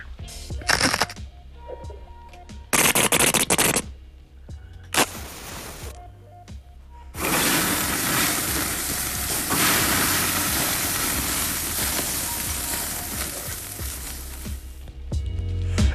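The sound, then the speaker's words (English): Barbecue grilling sounds: a few short bursts of hissing and crackling, then a long, loud, steady sizzle that runs to the end, with no talking. “wir haben dir ein paar Barbecue-Sounds äh, rübergeschickt”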